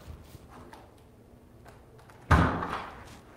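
A door shuts with one solid, fairly loud thud partway through, its echo decaying after a few soft handling knocks and rustles.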